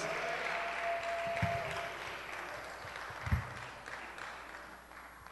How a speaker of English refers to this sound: Let's give a clap offering unto the Lord.